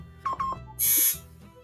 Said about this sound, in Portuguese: Alguém precisa atender a porta? É, tocaram a campainha aqui, mas eu não vou atender, não, eu sou difícil.